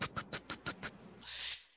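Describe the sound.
A voice imitates a dog's paws on stairs: six quick, evenly spaced clicking taps, followed by a brief breathy hiss as the sound trails off.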